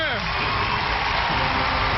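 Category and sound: crowd, audience applause and cheering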